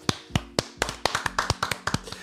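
Brief applause from one or two people: about a dozen sharp hand claps in a loose, uneven rhythm, with no one talking.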